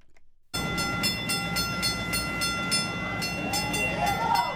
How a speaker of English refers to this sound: That's the sound of the first Green Line train leaving the new Medford Tufts Station before 5 this morning. The extension through Somerville and Medford is now officially open.